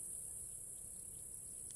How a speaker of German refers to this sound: und das Zirpen und Grillen